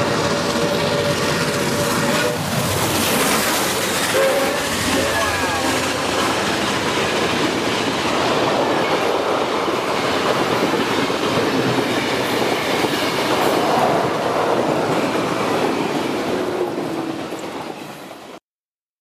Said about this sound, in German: May 2nd, 2010. steam locomotive going by high speed. Oh wow.